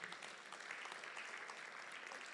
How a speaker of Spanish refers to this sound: Gloria a Dios. dele palmas al rey que vive, hermano.